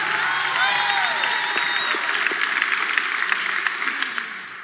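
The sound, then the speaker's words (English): A large church audience applauds and cheers steadily to thank God, dense clapping with whoops and shouts rising over it, the noise tapering slightly toward the end. “Put your hands together, make some noise.”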